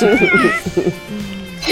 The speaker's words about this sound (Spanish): bueno, vamos con el famoso gato negro.